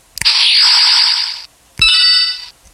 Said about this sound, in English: We are introducing the Super Mario Galaxy Japanese toy capsule sound drop effect. Here it is. So whenever you hear that sound, I'm going to make that my points marker.